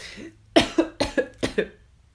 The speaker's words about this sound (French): Ah, ça n'a pas été si simple que ça, comme vous voyez, je tousse.